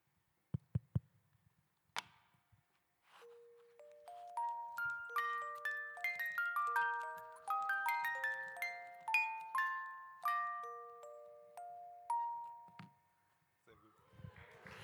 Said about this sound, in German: Was passiert, wenn wir diese Spieluhr an einen Resonanzkörper, ach, zufällig haben wir da was, wo kommt das denn her? Wenn wir diese Spieluhr an einen Resonanzkörper halten, wir versuchen das mal.